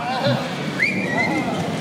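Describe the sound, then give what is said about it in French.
A single clear whistle from one of a few spectators rises and holds briefly over a steady murmur of crowd noise and talking in a bullring during a bullfight. “Je ne sais pas pourquoi certains sifflent, enfin il y a deux ou trois.”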